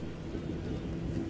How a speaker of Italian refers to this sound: L'ultima cosa che ricordo con precisione è il rumore della pioggia che batte sulla sacca di plastica dentro cui mi hanno chiuso.